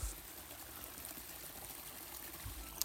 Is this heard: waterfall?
yes